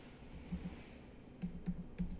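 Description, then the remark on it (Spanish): Soft computer keyboard typing while editing text to replace a word: a few quick clicks, a pause, then another short burst of keystrokes, fairly quiet over a faint background hum. “Hago clic aquí y voy a borrar education y voy a poner”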